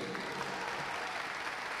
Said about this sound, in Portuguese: Vem para cá, Henrique. Aplaudam o Henrique.